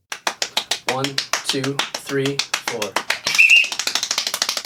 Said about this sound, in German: bei diesem Rekord, den du jetzt hier im Hintergrund hörst, hat er 804 Mal pro Minute geklatscht